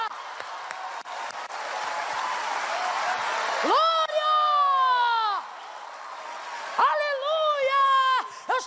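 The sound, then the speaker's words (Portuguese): An audience applauds in a steady, dense wash of clapping, then voices rise in two loud, sustained shouts of praise over the continuing applause. “Oh glória, se é para aplaudir, aplaude com vontade. E mistura com glória a Deus e aleluia.”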